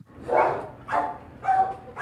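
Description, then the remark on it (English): Stressed dogs bark in the Animal Care Center animal shelter in East Harlem, New York City, four loud barks coming at a steady, roughly half-second rhythm, with no voices in between. “The barking starts as soon as you enter the doors of the Animal Care Center, or ACC, in East Harlem.”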